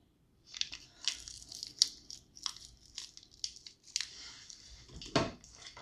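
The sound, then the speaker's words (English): Irregular crunching and cracking as hardened Starbucks instant coffee granules are crushed, a quick series of sharp, gritty bursts with a heavier crunch near the end, no talking. “It's, uh, actually, this is really nice instant coffee from Starbucks and it's hard though.”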